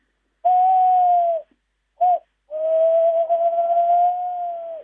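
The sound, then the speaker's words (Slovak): A tawny owl hoots: a long steady hoo, a short pause and a brief note, then a drawn-out quavering hoot. The call is clear, with nothing else in the background. “ale keď už rozčerí nejaký takýto zvuk, tak sa nebojme, to má lesná krásne húka”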